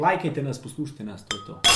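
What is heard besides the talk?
glasses clinking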